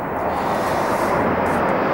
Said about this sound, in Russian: А летчики воздушно-космических сил сейчас демонстрируют выполнение сложнейшего и ответственного элемента пилотирования до заправка в воздухе стратегического ракетоносца Ту-160. Командир экипажа самолета заправщика Ил-78 майор Алексей Парусинов.